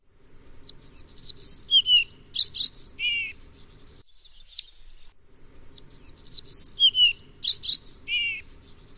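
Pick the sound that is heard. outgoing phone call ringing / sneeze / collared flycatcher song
collared flycatcher song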